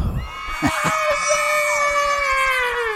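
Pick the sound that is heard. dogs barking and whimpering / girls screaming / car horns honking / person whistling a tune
girls screaming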